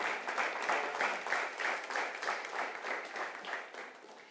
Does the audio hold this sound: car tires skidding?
no